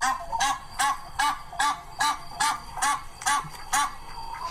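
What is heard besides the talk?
geese honking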